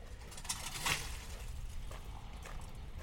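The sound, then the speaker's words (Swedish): Ice drops from a roof on Strandvägen in a few short, crackling impacts, the sharpest two close together near the start, then fainter ticks over a low, steady outdoor rumble. “Där kom det lite is från taket.”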